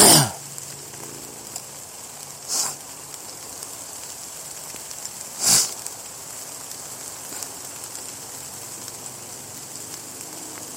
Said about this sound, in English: I could see that I could see where it's clear. Maybe 500 yards away. Why am I getting all this rain here?